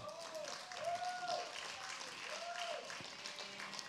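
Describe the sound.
An audience at a Christian church service applauding a man: steady, dense clapping that stays at a fairly even level for about four seconds, with a few voices calling out over it.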